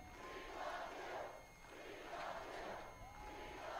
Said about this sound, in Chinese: 那么人群在欢呼说：“我们爱你。”